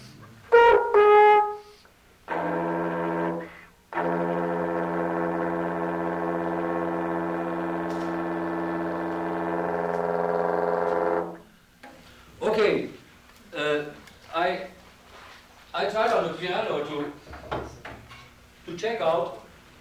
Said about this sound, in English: And with an F root and uh, the major seven above the octave being sung, uh, the overtone would be A flat. And you hear the A flat?